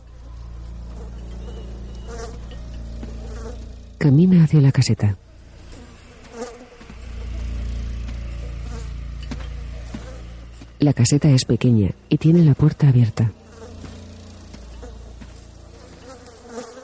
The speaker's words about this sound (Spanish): Decenas de moscas revolotean alrededor del cuerpo.